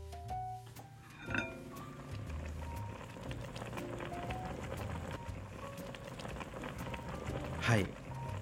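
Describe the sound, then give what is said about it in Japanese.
A pot of beef offal hotpot (motsunabe) simmers, a steady, dense patter of bubbling and crackling that continues throughout, with a brief murmur of voice near the start and a sharper clink near the end. “今聞こえますかね、えー、実は今もつ鍋を煮込んでおりますいやいい音ですね”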